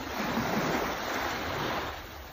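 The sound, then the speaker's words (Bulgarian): Sea waves wash steadily onto the shore in a continuous broad hiss of surf, even in loudness, easing slightly toward the end, with no voices. “Да послушаме успокояващия ритъм на морето и да погледаме тази безкрайна синова, толкова успокояваща, толкова хармонизираща”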